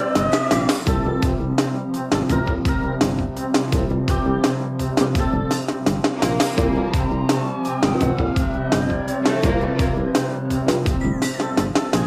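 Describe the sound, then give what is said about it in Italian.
A police siren wails with slow rising and falling sweeps, layered over a loud, steady pounding beat that continues throughout, with no talking. “la sirena è quella della polizia.”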